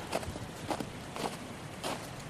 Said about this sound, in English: footsteps on snow.